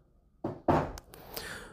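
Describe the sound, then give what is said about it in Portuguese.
Two quick, fairly sharp knocks on a door, like a secretary knocking on a doctor's office door, followed by a brief fading rustle. No one speaks. “Basicamente, você começava a se relacionar com o seu paciente a partir do momento que sua secretária batia na porta.”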